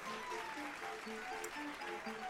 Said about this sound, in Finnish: Antakaa vielä pienet aplodit Pertulle. Hienosta esityksestä, hyvin tehty.